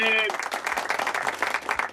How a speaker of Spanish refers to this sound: Un aplauso para Alberto Canosa. Ahí está.